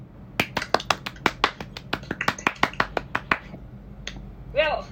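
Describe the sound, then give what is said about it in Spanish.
A short applause sound effect welcoming listeners to the show Café Pandora: about fifteen crisp, sharp claps in a quick, steady rhythm that stops abruptly, followed by a brief tone and a short vocal sound. “Aplausos.”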